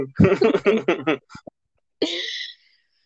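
human body sound, coughing

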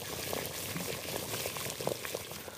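sound effect, water boiling

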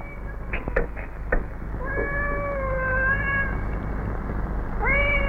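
animal, cats meowing and caterwauling

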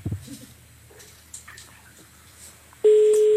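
signal or alarm, phone call ringing

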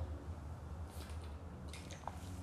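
human body sound, drinking water

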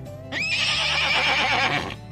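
animal, horse neighing

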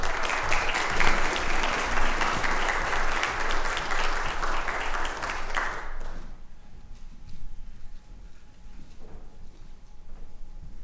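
crowd, audience applause welcoming guests

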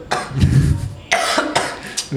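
human body sound, cough

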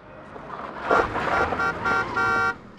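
vehicle, car horn honking

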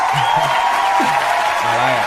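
crowd, applause

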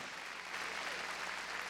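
crowd, audience clapping

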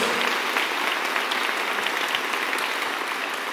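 crowd, audience applauding

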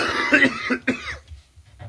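human body sound, coughing

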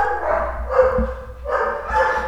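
animal, dogs barking

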